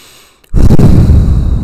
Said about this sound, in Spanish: En estos momentos tú estás respirando.